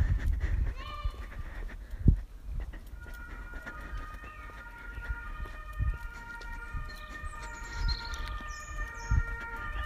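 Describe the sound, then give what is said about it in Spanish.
Ambulance sirens wail steadily in the distance, their overlapping tones drifting on and off over a low rumble of outdoor background noise with a few dull thumps. “En el fondo se escuchan las ambulancias y no puedo evitar pensar que tal vez sea un caso más.”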